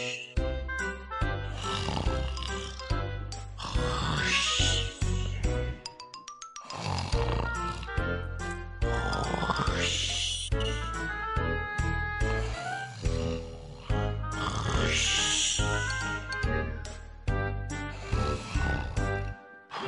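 A person snoring heavily in a steady rhythm, each long, rumbling, throaty breath loud and rasping, with brief pauses between snores and no talking.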